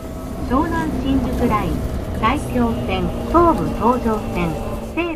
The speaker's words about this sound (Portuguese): mas para isso temos de apanhar o metro, uma das 13 empresas que cobrem a cidade como uma teia.